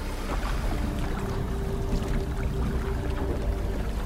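Steady water sloshing and splashing as five people paddle a canoe across a lake toward a neon flag, continuous, with a faint low hum underneath and no voices.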